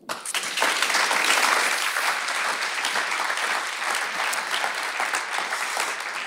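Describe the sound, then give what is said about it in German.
Sustained audience applause, a dense wash of many hands clapping at a steady, fairly loud level for several seconds with no voices over it. “Das ist euer Applaus.”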